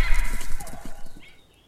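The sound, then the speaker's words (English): A short burst of horses: rapid hoofbeats clattering, a high whinny riding over them, then the sound quickly fading away into silence as dark horses ridden by armoured figures ride off through a woodland canopy. “Then the dark horses and the fell hounds and the half seen figures in dark armour bunched together and rode off through the canopy into the evening sky.”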